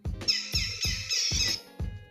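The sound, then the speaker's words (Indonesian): A toy's electronic bird call: bright, warbling chirps trill over a steady, thumping beat of about five pulses, loud and close, with no voices. “Burung.”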